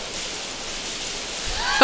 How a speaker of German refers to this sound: jetzt hagelt es sogar.